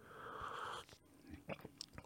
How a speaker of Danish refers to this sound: Jeg tager lige en slurk kaffe her, inden det går mm, løs.